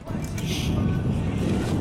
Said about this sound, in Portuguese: E ó, você está pedalando aqui. Você está pedalando aqui do meu lado, meu amigo, ouvindo barulho de moto, ouvindo barulho de carro, ouvindo minha respiração, ouvindo o vento batendo na cara.